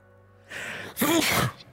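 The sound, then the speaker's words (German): A sudden sneeze bursts out, a short breathy intake followed by a sharp, loud explosive release, with no talking around it. “Gesundheit. Gesundheit.”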